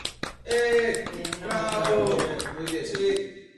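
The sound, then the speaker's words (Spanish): Brief burst of clapping from a TV program's audience, a few sharp claps then a dense patter of many hands, mixed with voiced cheering and whoops that stay loud for about three seconds before fading. “Aplausos para mí por encaminarme en esta bella labor.”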